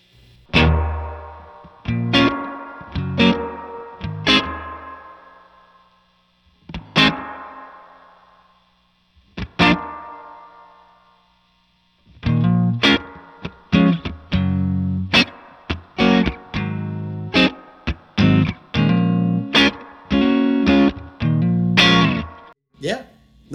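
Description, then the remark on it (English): Electric guitar played through plate reverb, with sparse plucked notes and chords ringing into smooth, shimmering tails, then a denser run of rhythmic strums. Fairly loud, with no voices. “All right, so this would be plate.”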